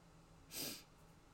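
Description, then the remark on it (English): A single sharp sneeze, caused by sniffing pepper, bursts out as a brief airy blast that rises and fades within half a second against quiet background hiss. “i just finished eating something and i put a lot of pepper on it and now my nose is running i sniffed a little bit of it and oh my goodness i guess i'm still sneezing”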